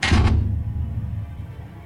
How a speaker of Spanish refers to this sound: La puerta se abrió, entré y se cerró de golpe detrás de mí.